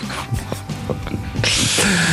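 A long, breathy yawn close to the microphone, with soft airy rustling at first, then swelling into a loud drawn-out exhale near the end.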